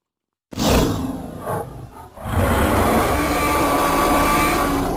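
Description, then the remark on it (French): A loud animatronic T-Rex roar: a brief rumbling growl swells, dips, then breaks into a long, harsh, sustained bellow that fills the whole clip, with no voices. “Ce que vous venez d'entendre, non, c'est le cri d'un T-Rex.”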